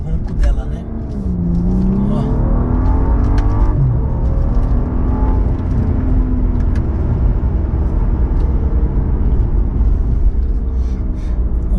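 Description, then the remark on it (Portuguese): The inline six-cylinder engine of a premium-segment car roars steadily, with rising and falling revs over a dense low rumble, continuous for the whole stretch. “ronco dos seis cilindros tá no top 10 dos seis cilindros em linha, tá no top 10 aí dos melhores roncos.”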